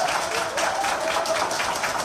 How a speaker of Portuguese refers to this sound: Mais aplausos. Ela faz cena de coração, né? Olha lá. Agora. Pessoal da outra ala. Administração. Da Santa Casa, né?